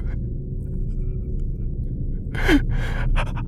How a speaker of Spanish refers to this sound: Aparte de mis respiraciones agitadas lo único que podía oír era el débil eco de aquella canción.